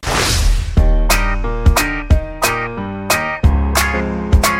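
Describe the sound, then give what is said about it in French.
A short musical jingle opens with a rising whoosh, then punchy, bright chord stabs hit in a lively rhythm, loud with no voices. “Alors on lance les dés et on va se retrouver après le jingle.”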